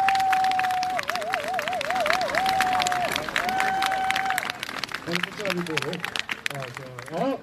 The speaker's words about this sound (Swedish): En applåd för er som har kommit hit idag, som har förstått det här med Global Compact.